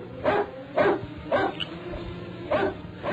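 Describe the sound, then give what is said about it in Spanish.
A dog barks four times in short, sharp bursts, three in quick succession and a last one after a pause, clear over a steady low background hum, with no one talking; the dog has sniffed out someone's presence. “Solo el perro había olfateado la presencia de Porfirio Cadena.”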